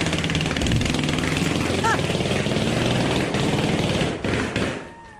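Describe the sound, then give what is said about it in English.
A continuous, rough sputtering noise like a struggling car motor, loud, with a rapid buzzing pulse, probably a voice imitating it. It stays steady, then falters and fades near the end. “I think it sounds like somebody that's got a bad motor on their car, like they're trying to shift gears or something.”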